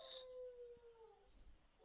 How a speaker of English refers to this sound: You've set the dogs off. Yeah, bit of volume on it.